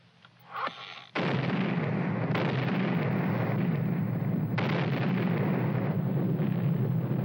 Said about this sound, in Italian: Finiamo, non ci resta altro che fare saltare il forte.